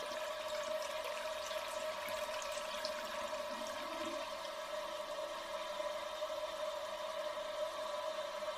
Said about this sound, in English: Just don't flush, or there'll be another flood.